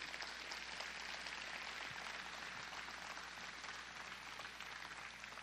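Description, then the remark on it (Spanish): An audience applauds the Lord steadily during a sermon, a dense wash of many hands clapping at an even loudness for several seconds with no voices standing out. “Dele un aplauso al Señor porque no le veo ganas.”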